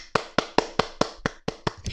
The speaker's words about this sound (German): Dafür können wir auch mal klatschen.